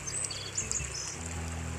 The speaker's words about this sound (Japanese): そんな暑くなる前に涼しいうちに朝散歩をしようと思ってまた川沿いを歩いています川の音や鳥の鳴き声が聞こえるでしょうかここは私が一番お気に入りの場所ですゆっくりゆっくり鳥の声と川の音を聞きながらこちらを録音しています